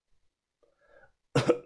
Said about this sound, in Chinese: 他咳嗽了几声